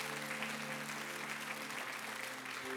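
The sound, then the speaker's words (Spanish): A church audience claps loudly and steadily for a few seconds, applauding the Lord, a dense mass of hands blending into a sustained wash of applause with a faint tonal hum beneath. “Apláudele fuerte al Señor, amén.”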